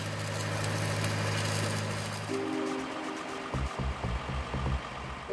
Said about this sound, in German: Nun transportiert ein LKW das tonnenschwere Stahlrohr zur Baugrube.